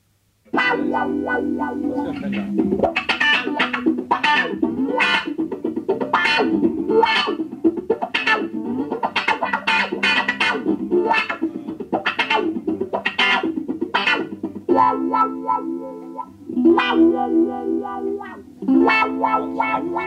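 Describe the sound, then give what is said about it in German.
A lone electric guitar plays through heavy effects, its bright, distorted chords and picked notes ringing with a chorus-like shimmer, steady and upfront for the whole stretch with no voices. “Eine elektrische Gitarre für sich allein. Sie klingt nackt und fremd.”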